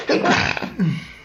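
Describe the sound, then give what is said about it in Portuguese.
A single loud sneeze: a sharp breathy burst followed by a short voiced tail, with no talking around it. “Saúde.”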